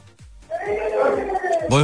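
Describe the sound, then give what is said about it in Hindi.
A baby wails in drawn-out, rising and falling cries behind a person speaking on a phone call from a canteen, with a louder, sharper cry bursting out at the end. “hello आपका बच्चा रो रहा है पीछे”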